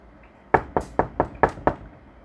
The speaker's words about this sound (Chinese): 外面的人。敲了敲主卧室的门